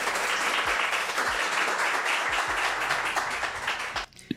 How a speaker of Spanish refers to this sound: Démosle un aplauso, por favor